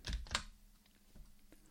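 Two quick computer keyboard key presses close together at the start, crisp, the Ctrl+V shortcut pressed to paste with the cursor at the end of track T1, followed by faint low hum and a few tiny clicks.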